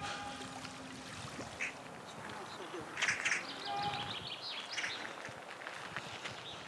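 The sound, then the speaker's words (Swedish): A muffled shout, faint and indistinct, made as a sound test of how sound travels, rises briefly above a steady outdoor background with scattered bird-like calls. “Man hör inte exakt vad det är du skriker, men man hör ljudet i alla fall.”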